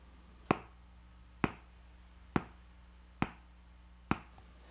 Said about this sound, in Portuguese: Por último, o som de bater com os dedos no fundo do copo, virado com a boca para baixo.